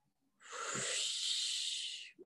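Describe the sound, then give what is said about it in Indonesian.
A single long, breathy whoosh of many children exhaling at once on the cue word "hujan" (rain) in a breathing game, rising quickly and sustained for almost two seconds before cutting off, loud, with no talking. “Kalau Kak Erlan bilang hujan, dihembuskan.”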